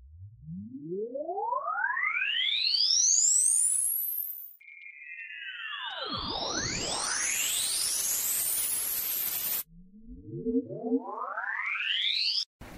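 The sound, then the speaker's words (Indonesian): A radio smash transition: loud electronic tones sweep upward and split apart, then are chopped off abruptly and replaced by new rising sweeps, with hard instant cuts and no talking. “Contoh smash.”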